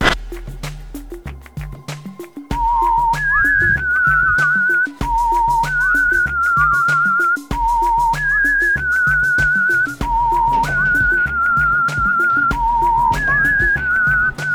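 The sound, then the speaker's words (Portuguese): A homemade song made by the speaker himself: a whistled melody repeats the same short rising phrase four times over a steady, thumping low beat, loud, with no talking. “Ouça essa música, ouve, até o final, ouve até o final.”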